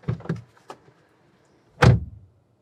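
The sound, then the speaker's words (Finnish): A car door is opened with a couple of quick clicks and mechanical rattles, then after a pause it swings shut with a single loud, slightly tinny thud that briefly rings out. “Avataan vähän ovea. Laitetaan kiinni.”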